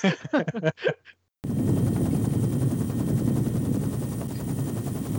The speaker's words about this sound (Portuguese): E aí, mas, aí tem aquela explosão quase que nuclear